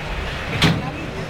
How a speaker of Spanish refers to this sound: El torilero que hace la señal para abrir y vamos a oír ese cerrojazo.